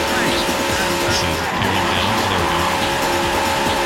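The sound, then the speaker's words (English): Racing video game audio: a steady, loud roar of engines with tire squeals cutting through, and an announcer's voice mixed in under the noise. “here's the actual race stuff it's got some good vo as well check this out”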